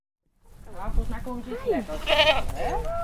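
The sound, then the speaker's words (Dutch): Several goats of African origin bleat in overlapping, wavering cries at a petting farm, rising and falling over steady background noise, with no clear talk. “Geiten, kippen, ezels. Allemaal afkomstig uit Afrika en schapen.”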